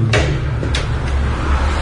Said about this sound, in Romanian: Și acum vom deschide o ușă și vom ajunge la primul nivel al parcării.